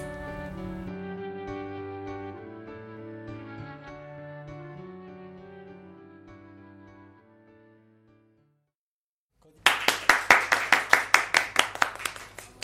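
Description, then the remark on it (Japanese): A melodic music passage fades into a brief silence, then a burst of loud, sharp hand clapping follows in a quick, steady rhythm of about a dozen claps, with no voices, opening the education program Shinoda Takahito's Education Hints. “拍手から入りました”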